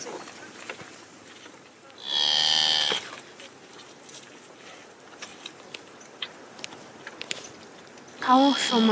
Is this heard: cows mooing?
yes